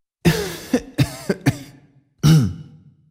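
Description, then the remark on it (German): A man, a butler with a slight cold, clears his throat and coughs several times in quick, rough bursts, then lets out one longer, heavier cough. No one speaks. “so klingt es, wenn Ihr Butler leicht erkältet ist.”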